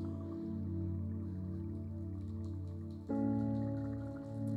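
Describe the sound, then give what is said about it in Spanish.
A crowd in a church makes a steady rain-like patter with their hands, a dense sustained wash that swells louder midway as more join in, imitating falling rain. “Vamos a hacer una vez más y cuando yo le diga hacemos los tres juntos y vamos a escuchar cómo llueve en la iglesia.”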